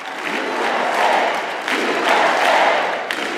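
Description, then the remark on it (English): A crowd of thousands cheers and applauds steadily during a half-hour speech at an anti-vaccine conference at the Gaylord Opryland Resort in Nashville, Tennessee, as the speaker attacks COVID vaccine mandates. A dense wash of clapping and shouting swells in waves, loud and continuous, with no speech over it. “Some of his biggest applause lines came when he attacked the COVID vaccine mandates.”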